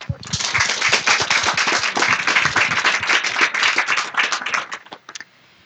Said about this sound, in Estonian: teeme suure aplausi.